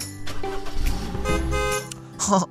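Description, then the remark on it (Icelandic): A car engine rumbles low and steady for a couple of seconds, joined by brief tonal, horn-like toots, then cuts off near the end with a short final burst. “Vá, flottu bíl finnst það ekki.”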